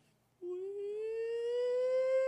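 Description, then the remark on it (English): A rising, wailing tone like a tornado warning siren, most likely a voice imitating it, climbing slowly in pitch and holding steady and fairly loud for about two seconds. “The sky looked green, it was weird, and then the tornado warning siren started going off.”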